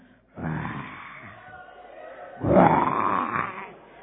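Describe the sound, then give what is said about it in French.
A man's voice imitates a lion's roar in two long, loud, rasping bursts, the second louder and rising in pitch, with no other talk around it. “Soyez sobres, soyez vigilants, car votre adversaire, le diable, rôde comme un lion rugissant, cherchant qui dévorer.”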